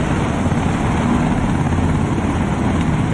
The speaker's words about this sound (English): there's the Blackhawks. Same thing, just like the last time they were training.